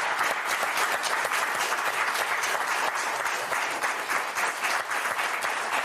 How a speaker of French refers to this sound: vous savez, vous n'avez pas besoin d'applaudir vous, parce qu'on vous applaudit, vous.